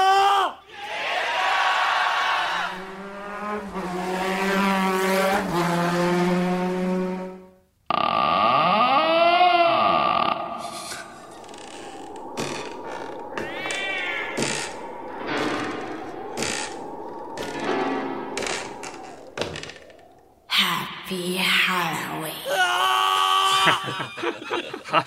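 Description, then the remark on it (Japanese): A loud, drawn-out creaking door sound effect for a Halloween scene groans open amid a busy mix of eerie tones, scattered clatter and snickering voices, sounding exaggerated. “でも、扉の音でかかったな。”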